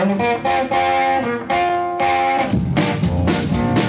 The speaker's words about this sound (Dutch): wat is dan de eerste grote hit die hij gaat scoren in 1955? Natuurlijk ….